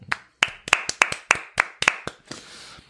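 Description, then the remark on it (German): A short burst of hand clapping by show hosts for their audience, about a dozen sharp, bright claps in a quick, slightly uneven rhythm, fading into a soft hiss at the end. No one speaks. “Wir können auch mal für euch klatschen.”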